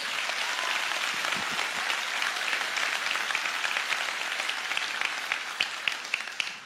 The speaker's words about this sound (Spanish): La última vez que la leí, la Biblia dice que la suma de tu palabra es la verdad y yo creo que eso merece realmente un aplauso a nuestro Dios.